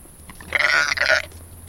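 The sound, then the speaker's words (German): A single sheep, one of four grazing on a meadow in the garden of the egidius in Hannover, bleats once, a wavering, nasal call lasting under a second with a brief dip midway, loud and clear over a low background hum. “auf der Wiese grasen vier Schafe, unbeeindruckt von dem Gewusel um sie herum”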